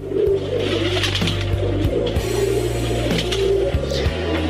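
Pigeons coo steadily in low, throaty, overlapping calls that repeat in soft rolling phrases, fairly loud, with no one talking.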